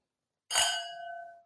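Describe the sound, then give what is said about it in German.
A single bright, clear clink of glasses of Weißburgunder white wine from the Pfalz touching in a toast, followed by a ringing tone that slowly fades out. No voices accompany it. “so, erstmal Stößchen. Wir müssen wieder laut, dass man es auch richtig hört.”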